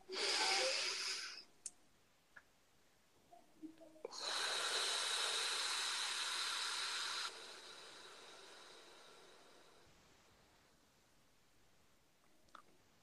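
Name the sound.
deep breathing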